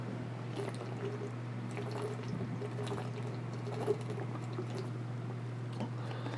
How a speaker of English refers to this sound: And I'll take a quick drink of my water.